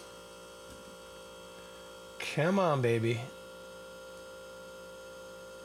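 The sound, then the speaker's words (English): An old refrigerator hums steadily in the background as it comes on, a low constant drone that runs throughout, briefly overlaid by a short spoken phrase. “There's the old refrigerator right on cue.”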